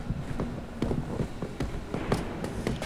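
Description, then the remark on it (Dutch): Steady footsteps walk at a brisk, even pace down two floors toward a second vault, each step a sharp tap over a dull, reverberant background. “Nou, laten we naar de tweede kluis lopen. Ja, dat is goed. Dan moet naar beneden.”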